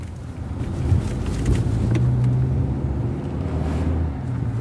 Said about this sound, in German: Es geht mit dem Auto nach Kfar Asa.